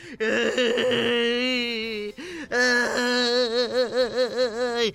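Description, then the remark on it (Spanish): A voice imitates crying while telling a joke: two long, wavering wails with a short pause between them, the second breaking into a pulsing, sobbing whimper. Loud and unaccompanied. “llega a la iglesia llorando, ¿verdad?”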